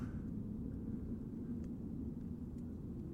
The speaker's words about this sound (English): Another jet.